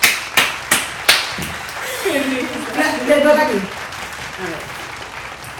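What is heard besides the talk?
applause sound effect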